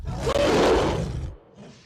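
A loud, rough animal roar bursts out with deep, growling rumble and broad harsh noise, holding for over a second before cutting off into a faint, breathy tail.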